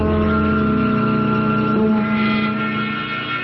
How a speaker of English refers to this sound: I borrowed Mr. Wendell's car without bothering to ask him for it. I drove to the office of lawyer Spardell, all on a big fat hunch.